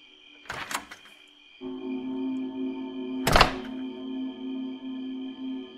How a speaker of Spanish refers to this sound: Pensando que mi hermano acababa de llegar a dormir, escuché los pasos llegar a la puerta de entrada de la casa y que abrió la puerta.